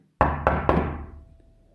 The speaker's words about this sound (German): Schließlich ging er hinüber und klopfte an Nasreddins Haustür.